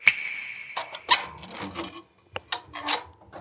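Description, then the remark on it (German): Irregular pops and sharp crackles from a wood fire burning in a stove that is slowly warming up, moderately loud, with brief quiet gaps between the bursts and no one talking. “Man hört das Feuer hier knistern, der Ofen wird langsam warm.”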